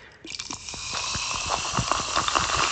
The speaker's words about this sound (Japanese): もうわけわからなくなりましたけどもね、炭酸を注いでいきましょう。はいはいはいはい。